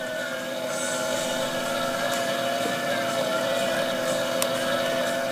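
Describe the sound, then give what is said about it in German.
A treadmill with a loggerhead sea turtle on it runs steadily in a fitness studio for turtles. Its motor gives a continuous whirring drone, with sustained tonal hums of background music layered over it. It is fairly loud and unchanging throughout, with no one speaking. “wir haben seine Flossen nicht gehört, aber den Rhythmus des Laufbandes sozusagen und die passende Hintergrundmusik.”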